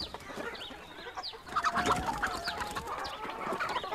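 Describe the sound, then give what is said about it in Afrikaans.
Several chickens cluck and chatter in irregular bursts, with a louder cluster of clucks in the middle, over a low outdoor background hum and no talking; the chickens are at chicken coops on Mr van Aswegen's farm. “Hy kyk rond en sien hoenderhokke.”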